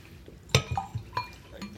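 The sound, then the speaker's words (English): A few bright clinks of big drinking glasses ring out one after another, the first sharpest and loudest, each leaving a brief high-pitched ring, with soft knocks between and no talking. “I also brought big glasses this time.”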